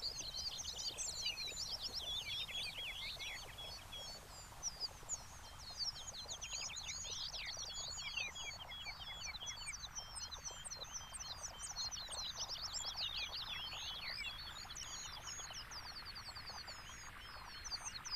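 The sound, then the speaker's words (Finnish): Many small birds chirp and trill in quick, overlapping bursts throughout, shortening their song phrases to be heard through the noise, their high calls riding over a steady low rumble of machinery and excavators digging. “Pikkulinnut lyhentävät laulusäkeitään saadakseen viestinsä perille melun läpi.”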